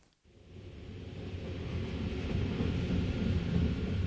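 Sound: train moving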